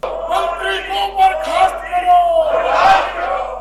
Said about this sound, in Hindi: Shem Shem के नारे लगते हैं पार्लियामेंट में इस आवाज से पार्लियामेंट गूंजती है